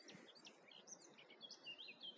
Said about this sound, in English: I just really hope you can hear the birds. They're amazing. Just singing. What a beautiful place.